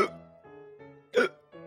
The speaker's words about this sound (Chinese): 斑马坐下来喝了几口，忍不住咳了起来，还结结巴巴的说话，又不小心被呛到，最后还是打嗝。